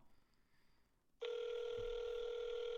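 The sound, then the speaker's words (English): After a moment of near silence, a loud, steady electronic telephone tone starts abruptly and holds unbroken to the end, the ringing tone of an outgoing call to a manager. “I need you to answer the phone.”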